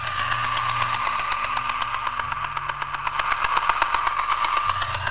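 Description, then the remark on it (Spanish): A Roomba robot vacuum cleaner sweeping the floor runs steadily, its motor giving a high whirring drone with a low hum underneath and a fast, fluttering rattle that grows slightly stronger toward the end. No one speaks. “Y no es otra cosa que el robot que barre el suelo, el puñetero rumba.”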